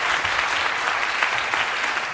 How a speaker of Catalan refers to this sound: Tots els diputats, excepte alguns de Ciutadans, van ovacionar llargament la diputada que marxava cap al seu escó plorant.